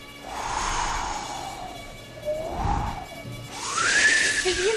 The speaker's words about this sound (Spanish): En ese momento, alguien abrió una puerta y entró una fuerte ráfaga de viento.